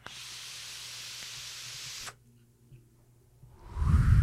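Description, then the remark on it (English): A steady, airy hiss of a vape exhale from a vlog vape runs for about two seconds and cuts off abruptly, followed by near silence and then a low, rumbling rush of air that swells at the end. “That's my vlog vape.”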